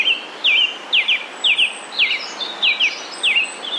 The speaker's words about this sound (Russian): певчий дрозд говорит «Филипп, Филипп, пойдем, пойдем, чай пить, чай пить, сахаром, сахаром»